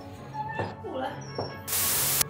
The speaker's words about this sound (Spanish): La Candy se puso a aspirar.